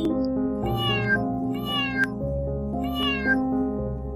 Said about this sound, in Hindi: तभी वहां से एक बिल्ली जा रही थी